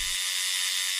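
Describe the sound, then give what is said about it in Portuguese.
A steady, high-pitched electric buzz of a tattoo machine drawing on skin runs continuously for about a second, fairly loud, with no voices. “Este é o som da máquina que desenha na pele”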